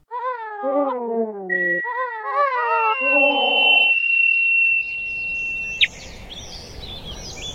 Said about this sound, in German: Und jetzt hören wir den Vogel der Woche